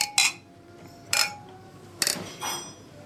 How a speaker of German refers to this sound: wenn Sie richtig gehört haben, das klingt jetzt ein bisschen anders, weil vier Eiran angestoßen haben.